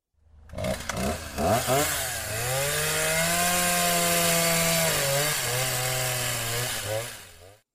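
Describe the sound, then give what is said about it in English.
A loud saw sputters and revs up, then holds a steady buzzing whine for several seconds, dipping briefly in pitch before cutting off. No one speaks. “The noise of the saw got his attention.”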